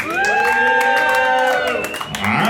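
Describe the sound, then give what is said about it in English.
A live crowd at a producer battle cheers and shouts, making noise for the producer they feel won, with sustained whoops and high yells rising over a dense roar of voices and scattered claps, holding steady for a couple of seconds. “I like both of them, but only make noise for the producer that you feel like won this battle.”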